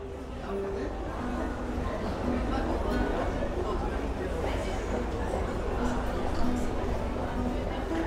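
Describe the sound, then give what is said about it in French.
A dense, steady crowd murmur fills the space, many voices blending into an indistinct babble with no single words standing out, holding at a constant moderate loudness throughout. “Cette voix-là ne prononce aucun mot, mais on la reconnaît en colère, joyeuse, impatiente, anxieuse.”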